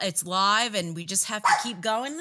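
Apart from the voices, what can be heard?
dogs barking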